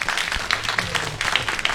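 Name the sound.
audience applause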